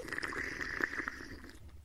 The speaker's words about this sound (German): Man sitzt zusammen und hat so eine Art Teezeremonie. Es gibt alltägliche Teezeremonien, Teezeremonien im Kloster, die haben alle ein klein wenig äh, unterschiedlichen Charakter. Man genießt dabei jeden Schluck des Tees, man darf sogar schlürfen.